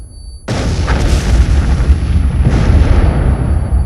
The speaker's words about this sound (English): I crawled along in front of the seats, jumped up, and ran to the exit. Just as I was going up the steps, there was an explosion.